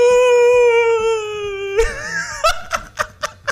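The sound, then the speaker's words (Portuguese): A man crying in a WhatsApp voice message after the Italian Grand Prix: a long, drawn-out wailing cry that slides slightly downward, then breaks into a series of short, gasping sobs in a rhythmic pattern, loud. “A minha reação só foi tipo, ai, que bonitinho, ele tá chorando.”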